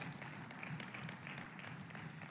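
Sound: audience clapping in praise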